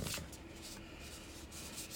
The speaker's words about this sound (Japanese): ライブアルバムの紙ジャをこう触ってるんですこの音